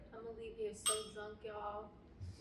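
glasses clinking

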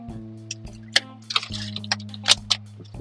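drinking water

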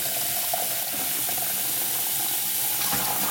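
water running

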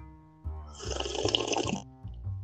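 sipping hot tea

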